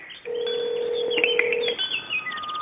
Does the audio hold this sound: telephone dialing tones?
yes